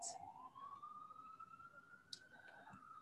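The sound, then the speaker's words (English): An emergency vehicle siren wails steadily as it passes outside near a hospital, its pitch slowly rising, heard faintly over a low background rumble. “And if you're listening to the sirens, I live near a hospital.”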